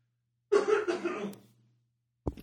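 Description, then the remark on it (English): A person in a dusty old basement coughs once to clear their throat, a rough, voiced burst that trails off over about a second, followed by a brief sharp sound moments later. The cough is loud. “um, here, I'm going to do a good cough and get it out of the way.”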